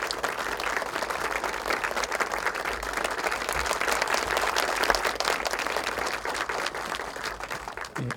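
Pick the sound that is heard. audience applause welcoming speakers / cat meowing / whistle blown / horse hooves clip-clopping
audience applause welcoming speakers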